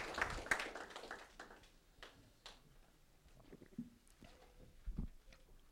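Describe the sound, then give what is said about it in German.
Scattered hand claps from a church audience applauding Jesus after prayer, strongest at the start and thinning into a few sparse, faint claps, with no voices. “Geben wir Jesus einen Applaus.”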